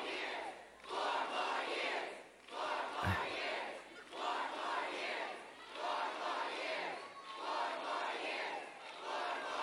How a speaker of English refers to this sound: The protesters are still screaming in the background. So they're having this big shouting match.